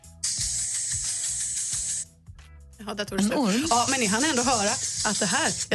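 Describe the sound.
A loud, steady hiss like air escaping from a puncture runs for about two seconds, then stops abruptly and a person starts talking.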